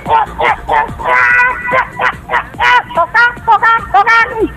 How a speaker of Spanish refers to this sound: Las gallinas guineas.